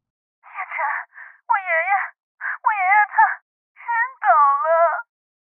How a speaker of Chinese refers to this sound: 可当听到电话那头的抽泣声后，冷夜晨语气稍微缓了几分。